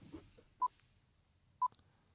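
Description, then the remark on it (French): Two short, clean electronic beeps sound exactly one second apart, from a five-second countdown timer, over a quiet background with no talking. “Attends, juste avant, je voudrais qu'on écoute le, le décompte de 5.”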